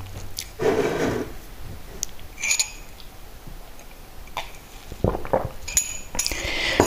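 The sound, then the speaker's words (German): Clunky mechanical strikes and rattles from a Perkins Brailler, as heard in a typing program, come in irregular bursts, with a few sharp metallic clicks and a heavier clatter near the end, moderately loud with no voices. “Und also wirklich, als ich die Perkins gehört habe da in dem Programm, ich habe echt gedacht, boah geil, ich bin wieder in der Schule, ja.”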